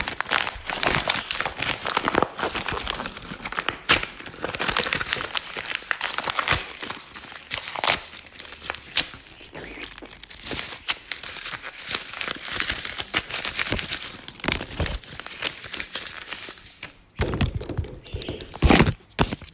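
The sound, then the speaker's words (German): Paper is crumpled and crinkled, a dense, continuous crackling with sharp snaps and rustles that continues for nearly twenty seconds, briefly easing before a final burst of crinkling. “Also, ähm, zuerst habe ich hier Papier.”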